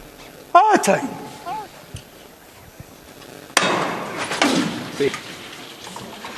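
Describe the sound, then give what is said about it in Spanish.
A knocker hammer strikes a Holy Week procession float twice, two sharp, loud metallic knocks about three seconds apart, with voices and crowd murmur around them; the hammer is struck by the honorary head sister of the brotherhood, and the float is lifted. “Que ha tocado el martillo la persona que es hermana mayor honorario de la cofradía.”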